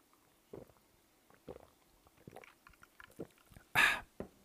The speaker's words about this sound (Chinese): 那我现在呢，就是在开始之前呢，还是用气泡水跟大家来干一杯，我干一杯，跟大家来闲聊一下。